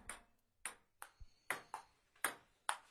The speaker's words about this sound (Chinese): 啊，乒乓球的声音。你们还记得人生中第一次打乒乓球是什么时候吗？